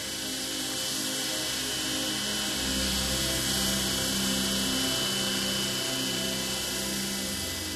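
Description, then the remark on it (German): A computer-controlled stone-cutting saw table runs steadily, with a loud, continuous mechanical whir and a droning hum that never lets up. No one speaks. “Die Naturwerksteinmechaniker müssen sich letztlich an jeder Maschine zurechtfinden, sei es an so einem computergesteuerten Sägetisch oder einem 50 Jahre alten mechanischen Sägegatter.”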